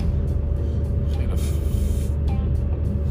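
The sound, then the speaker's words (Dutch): Steady low diesel rumble of a yellow roadworks truck with a crane and trailer creeping along in slow traffic at the roundabout before Warnsveld, with a brief sharp hiss like an air brake release midway. “wegwerkzaamheden, vrachtwagen, kraan geval met aanhanger.”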